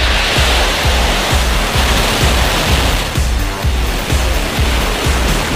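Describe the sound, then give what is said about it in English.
A rocket engine roars at launch, a loud, steady wall of hissing noise with a deep, rapid low crackle pulsing underneath throughout. “Five, four, three, two, one, zero. Ignition, lift off.”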